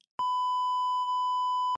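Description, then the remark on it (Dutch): A single steady electronic beep, a pure tone around one kilohertz with faint higher harmonics, held loud and unbroken for about a second and a half with no talking. “Eh, dat, kan, volgens mij heb ik ook ergens zo'n erg zo'n piep.”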